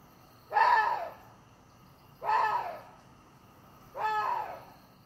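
A water deer, known in Korea as the gorani, calls three times, harsh raspy barks of about half a second each, evenly spaced with pauses between, loud against a quiet background.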